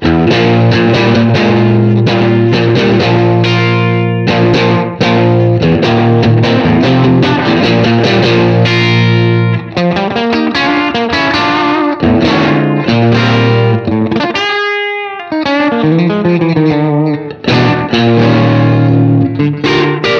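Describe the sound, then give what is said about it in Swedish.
Distorted electric guitar, played through a distortion pedal, plays loud, thick chords and riffs for about twenty seconds, with a brief lull where a single sustained note rings out before the heavy strumming returns. No one speaks. “alltså direkt när man sätter på den pedalen.”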